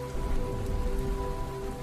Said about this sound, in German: Schließ deine Augen und lausche den Regentropfen, die auf das Dach fallen.